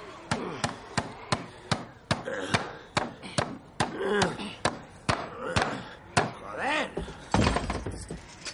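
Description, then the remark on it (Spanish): Rapid, steady hammer blows nail a second piece of wood onto a door, about twenty sharp knocks in quick rhythm, fairly loud, with faint voices murmuring between the strikes. “Daisy se lo da y John clava el segundo trozo de madera.”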